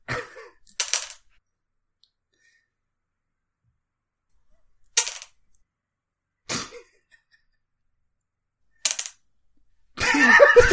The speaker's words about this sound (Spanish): Super cómico. 22. No dejan de caer dados. 22.